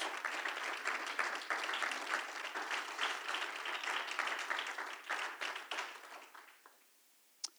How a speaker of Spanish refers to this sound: Hermanos, en su vida, denle un fuerte aplauso a Cristo Jesús.